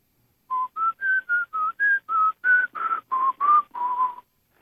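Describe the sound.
A German former soldier whistles the theme from The Godfather, about a dozen clear, steady notes in a slow, connected phrase. No one speaks.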